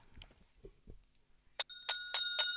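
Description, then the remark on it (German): A bicycle bell rings out four times in quick, even succession, bright and metallic with a lingering shimmer, after a stretch of faint low shuffling sounds. “Es sollte eine Fahrradklingel sein, genau.”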